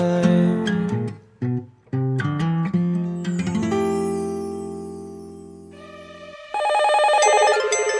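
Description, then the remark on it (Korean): A bright, electronic telephone ring rises in the final seconds, loud, after a short burst of punchy musical stabs and a sustained synth chord, opening a radio show's listener phone quiz segment. No one speaks. “청취자 전화 퀴즈 1, 2, 3 오늘도 세 분의 청취자를 만나 봅니다.”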